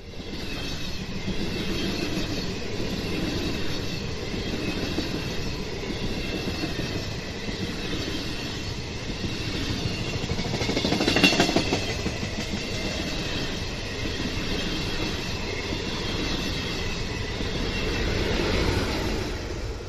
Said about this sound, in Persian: قطار آماده حرکت بود. مسافران بر روی سندلی های خود نشسته و منتظر حرکت قطار بودند.